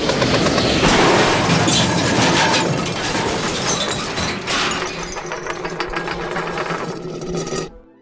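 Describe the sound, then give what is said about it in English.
A loud, sustained crash as someone flying goes down into a heap of junk: dense rattling, clanking and banging that churns for several seconds before cutting off abruptly, with no voices. “Hey, kid, you crashed into all my junk.”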